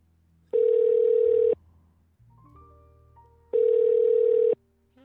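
A telephone rings twice on the line: two steady, mid-pitched tones about a second each, separated by a two-second pause with only faint low hum in between, as a host phones a shop salesperson for a telephone interview. No one speaks.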